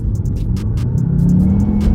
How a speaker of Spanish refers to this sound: Hacer que el coche ah, despegue de esa manera es adictivo.